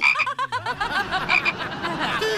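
A toad croaks in a fast, steady run of throaty pulses, fairly loud, continuing without a break for a couple of seconds with no talking over it.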